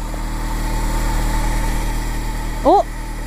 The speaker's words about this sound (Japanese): アウトランダー PHV って給電機能がついているのでこのボードについた雪を溶かすことができるとドライヤーをそのために持ってきましたのでちょっとこれを使ってみたいと思います今電源をつないでますのではいおドライヤー全開でいけますね